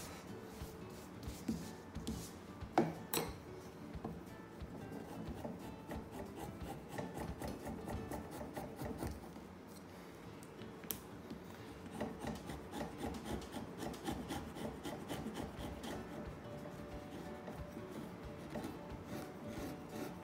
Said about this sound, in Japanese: 包丁が切れなくなってきたので作業すると机がガタガタ揺れてきますね切る力もかなり必要になってきましたそろそろ包丁を研ぎましょう